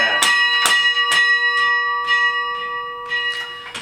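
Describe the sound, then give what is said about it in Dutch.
Loud carillon bells, played by hand by a carillonneur at the keyboard, ring out one after another in a quick, uneven melody, each with a bright attack and long shimmering tones overlapping as they decay, with no voices present. “En eh, als een mens, een Bayardier hier zit, achter het klavier zit, dan, dan ik vertrouw dan dat ervarende luisteraars kunnen mhm.”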